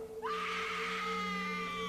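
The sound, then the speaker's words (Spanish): A woman lets out a sudden, piercing scream of terror on seeing a corpse. It rises sharply and then holds at a loud, sustained pitch, unbroken over a steady low hum. “Al ver el cadáver de José Luis, gritó aterrada.”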